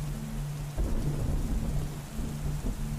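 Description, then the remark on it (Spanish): A deep, rumbling roll of thunder from a lightning storm swells and lingers over steady rainfall, with low booming energy rising about a second in and continuing through. “cada relámpago como fogonazo de luz que descargan una fuerte energía”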